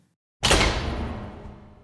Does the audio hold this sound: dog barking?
no